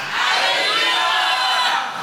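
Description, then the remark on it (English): An audience shouts hallelujah together, a loud, sustained roar of many overlapping voices that swells quickly and holds steady for about two seconds without any single speaker standing out. “Shout hallelujah.”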